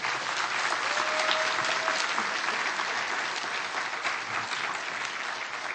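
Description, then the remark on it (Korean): A crowd claps steadily in a dense, continuous wash of applause for the conductor, accompanist and choir, holding at an even loudness for several seconds without letting up. No one speaks over it. “우리 다시 한번 우리 수고하신 우리 지휘자님, 반주자님, 그리고 우리 예양 찬양대에서 박수 한 번 크게 하겠습니다.”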